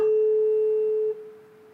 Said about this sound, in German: Hier habe ich zwei Stimmgabeln vorbereitet und die sind auf 34, 432 Hertz abgestimmt, im niederen Frequenzbereich. Und hier habe ich jeweils den Resonanzkörper. Jetzt bringe ich die zum Schwingen und mal gucken, ob er es hören kann